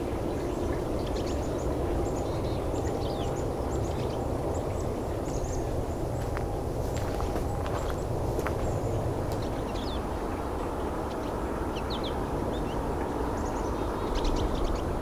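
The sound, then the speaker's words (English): A small flock of three pine siskins, three or four goldfinches and one purple finch, preening in the sun, calls steadily, with scattered high, thin chirps and twitters throughout, set against a constant low, rushing background rumble. “small flock here of three pine siskin, three or four goldfinch, and one purple finch.”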